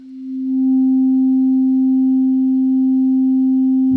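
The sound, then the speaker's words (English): A Moog Sub Phatty synthesizer in active panel mode, with oscillator 1 at maximum volume in the mixer, holds a single steady, low-pitched tone that swells in over the first moment, then drones loud and unwavering on its own before cutting off abruptly. “Okay, I put the synth in active panel mode to have a total control of it in real time in the Sub Phatty mixes, I put the volume of oscillator 1 on maximum”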